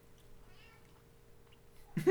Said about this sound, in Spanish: Estoy enojado el gato también.